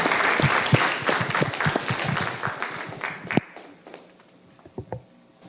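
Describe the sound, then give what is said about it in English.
A crowd applauds with dense, steady clapping for about three seconds, then it thins out to a few scattered claps and quiet room noise. “Let's give Eric a Thank hand.”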